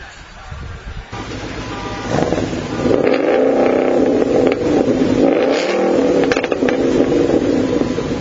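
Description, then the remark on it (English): Powerful muscle-car engines, including 600-horsepower Chargers and 500-horsepower Mustangs, rev and roar, the throaty rumble climbing in pitch as they accelerate and then holding at a loud, sustained growl, with some wind buffeting the microphone. “600 horse uh, Chargers. Uh, 500 horse Mustangs.”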